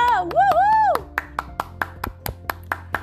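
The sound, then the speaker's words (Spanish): A brief rising and falling vocal cheer, then steady, evenly spaced handclaps, about a dozen sharp claps at a brisk regular rhythm for around two seconds, applause honoring entrepreneurial mothers for Mother's Day in Puerto Rico. “Y quiero que se den un fuerte aplauso.”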